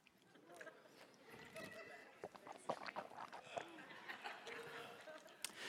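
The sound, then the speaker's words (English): Wet swishing and sloshing of water in a person's mouth, with irregular squelchy clicks and gurgles running steadily for several seconds. “Swishing water in your mouth?”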